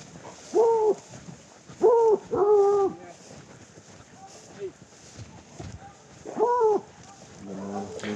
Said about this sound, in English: As we hear now, the team has arrived on location, 30 minutes from camp the dogs baying in the background.